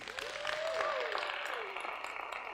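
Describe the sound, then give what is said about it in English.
An audience claps together during a morning sermon on the Book of Judges, chapter four, in a steady, dense burst of applause lasting a couple of seconds, with a few voices calling out over the clapping. “Just clap if you know what I'm preaching.”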